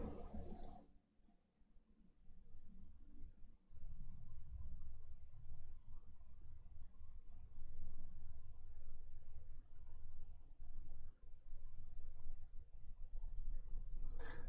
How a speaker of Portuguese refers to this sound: Calma aí que agora passou o carro aqui, ele tá barulhento.